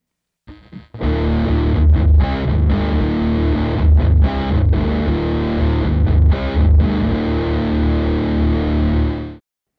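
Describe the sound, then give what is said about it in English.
An electric guitar through an OCD overdrive pedal on a 9-volt power supply plays heavily distorted chords with a thick, flubby low end and harsh clipping from exceeding the pedal's headroom, loud and sustained for about nine seconds with brief choppy breaks, no voices. “So in that version, you hear a lot of flubbiness and a lot of just clipping where it's exceeding the headroom of the pedal itself.”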